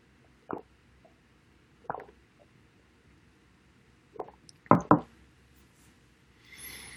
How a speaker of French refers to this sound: Je prends un peu d'eau.